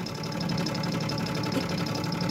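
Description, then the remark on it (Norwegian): The diesel engine of a Ferguson 62-model tractor runs steadily at idle, a low, even chugging with a rapid repeating knock and a faint high whine over it, with no voices. “det er en dieseltraktor. Ferguson 62-modell.”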